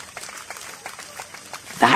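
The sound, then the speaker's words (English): Applause from a crowd, a fairly soft spread of scattered claps running steadily throughout, with a brief louder burst of noise near the very end. “There was a roar of applause as a white kangaroo made an enormous jump”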